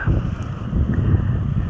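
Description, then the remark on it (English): A steady, low roar of ocean surf on the Gulf Coast mixed with wind buffeting the microphone, continuous and fairly loud with no clear individual wave breaks and no voices. “You will be hear the crashing of waves throughout the podcast.”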